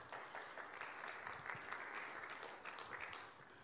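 A crowd applauds with steady, dense clapping that holds an even level throughout, many hands blending into a continuous crackling wash with no voices on top.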